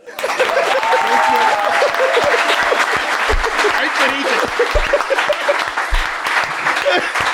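Dense, sustained applause from a club audience at a show, a continuous crackle of many hands clapping at steady loudness for several seconds, with a few low thumps and faint cheering mixed in.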